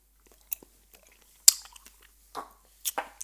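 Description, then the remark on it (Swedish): Someone bites into and chews a strawberry, making a handful of short, moist crunching bursts spaced irregularly over a few seconds, fairly soft with quiet gaps between. “Ta en jordgubbe.”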